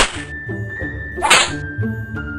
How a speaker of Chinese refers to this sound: 话一说完，他又把少年抓起来绑在树干上，然后捡起刚才丢在地上的皮鞭，往少年的身上猛力抽打，打到他奄奄一息才停止。